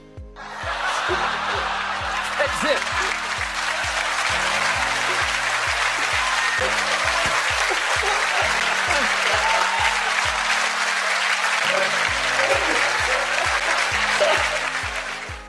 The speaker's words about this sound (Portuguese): nessa hora você põe uma plateia vibrando junto comigo aqui.